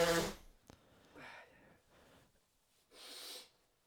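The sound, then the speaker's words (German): A single sharp sneeze bursts out at the start, followed by a click and a few softer sniffs and breathy exhales, with no talking. “Einmal noch niesen.”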